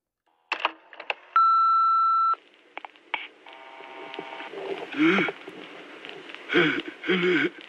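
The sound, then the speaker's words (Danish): A few sharp clicks, then a single steady electronic beep lasting about a second from an answering machine, followed by a fainter tone and muffled, garbled line sounds. “Øh, men jeg tror lige, at vi må have fat i, øh, hvad hedder det, øh, telefonsvaren igen.”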